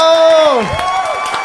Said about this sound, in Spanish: Así que es un honor tenerlo en el canal. Él es Nefo. ¡Un aplauso para Nefo!